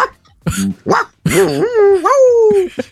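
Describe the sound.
A man, a self-described dog man, imitates a dog in the morning, giving two short, yappy barks followed by a long, wavering whine that slides down in pitch, loud.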